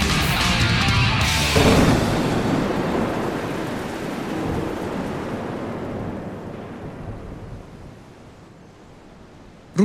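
A thunderstorm with steady heavy rain, opening with a loud crack of thunder that rolls into a long rumbling roar and slowly fades as the rain hisses on, with no voices.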